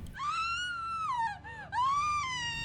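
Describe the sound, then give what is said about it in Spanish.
A woman's anguished scream in the hallways of a tenement building, a long, high, wavering wail that dips and falters briefly midway before rising again, sustained and fairly clear with no talking around it. “un grito femenino se escucha lastimosamente en los pasillos de la vecindad.”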